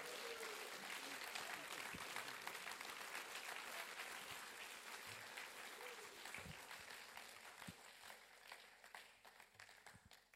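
An audience applauds steadily for about ten seconds as thanks to a team, a dense wash of many hands clapping that holds level and tapers off slightly toward the end, with occasional louder individual claps.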